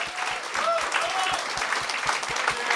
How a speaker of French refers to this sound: Applaudissez-le.